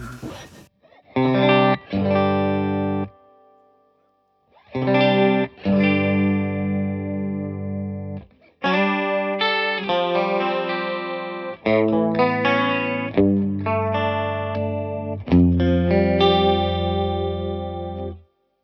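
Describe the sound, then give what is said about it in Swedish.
Sustained electric guitar chords thickened by an Eventide stereo pitch-shift detune effect, with the right and left channels pitched slightly differently, plus 8 on one side and minus 8 on the other, giving a wide, shimmering chorus-like sound. Several loud phrases are separated by brief pauses, with no talking. “Och det här är då, då är höger och vänster kanal pitchat lite olika. Plus 8 på ena sidan och minus 8 på andra sidan.”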